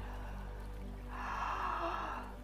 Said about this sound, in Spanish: Y con esta respiración profunda vamos a decir,